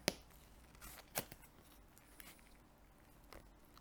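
Sticky, slurpy eating from a gourmet plate of cheese chunks: a handful of sharp, wet mouth clicks and smacks, two stronger ones early on, then fainter scattered ones over a quiet background, with no talking.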